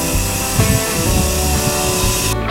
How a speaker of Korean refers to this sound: 제일 싫은 거는 여기 아침에 여기 새로 지은 건물 여기 막 여기 공사하는 소리. 아침에 이것 때문에 깨요. 너무 시끄러워.